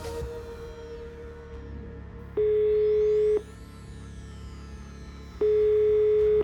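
A telephone line tone sounds twice during an emergency call to 113, each a steady one-second beep separated by a few seconds of low background hum, clear as if heard through a phone.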